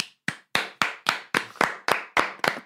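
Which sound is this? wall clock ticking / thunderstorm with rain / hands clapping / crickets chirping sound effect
hands clapping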